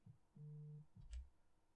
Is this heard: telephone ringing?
yes